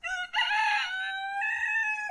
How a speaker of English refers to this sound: That must be Kalauhe Lamoa, the rooster.